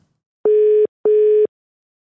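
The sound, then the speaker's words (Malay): A telephone ringback tone, heard while placing a phone call to someone, sounds a double ring of two short, steady electronic beeps with a brief pause between them, clear and fairly loud, with no voices present. “Tanpa masa jom kita cuba telefon dia dan kita boleh bercakap dengan dia.”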